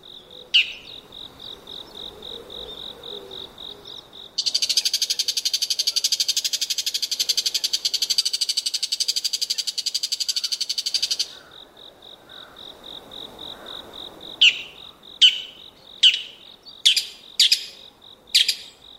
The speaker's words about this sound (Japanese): モズです標高の高いところで夏を過ごしたモズは秋里へ降りてくると高鳴きと呼ばれる鋭い声で縄張りを宣言します